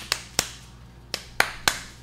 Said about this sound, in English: oh, you didn't do the clap thing. Oh shit. Huh. Should we do the clap thing?